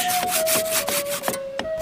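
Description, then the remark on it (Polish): A hand saw rasps through freshly quarried stone in quick, regular strokes, about six back-and-forth pulls, gritty, with a faint steady whine running underneath and no voices. “Nawet piła i może ten kamień piłować.”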